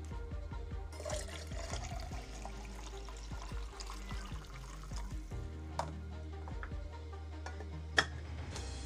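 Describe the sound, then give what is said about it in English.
Coffee is poured from a thermos in a steady trickling stream for several seconds, with a few small clinks and a sharper click near the end. “I you know to be honest with you, I, I could use a thermos of coffee.”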